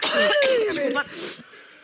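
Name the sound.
coughing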